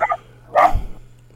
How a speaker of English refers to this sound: That sound you hear today is one of our illustrious host puppy.